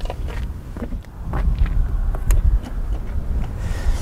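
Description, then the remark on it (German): An M3 Touring's flap exhaust with four tailpipes, the same as on the M3 and M4, rumbles deep and steady for several seconds, with a few sharp crackles and a touch of wind buffeting, no voices. “stammt eins zu eins vom M3 und M4, also auch der Klappenauspuff mit den vier Endrohren. Es gibt also denselben Sound auf die Ohren.”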